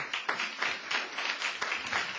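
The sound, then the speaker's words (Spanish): A crowd applauds steadily, a dense wash of many hands clapping at once with no voices, moderately loud and sustained throughout. “Pero ¿por qué aplaudimos?”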